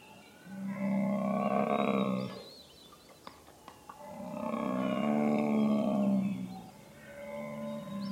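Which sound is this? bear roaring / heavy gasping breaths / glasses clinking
bear roaring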